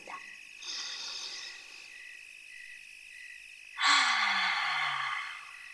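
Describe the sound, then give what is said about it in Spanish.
A slow, soft deep inhale, taken with eyes closed, is followed a few seconds later by a louder, longer exhale like a sigh. A steady hum of crickets or frogs sits in the background throughout. “Vamos a ponernos muy cómodos, cerramos nuestros ojos y tomamos una respiración profunda.”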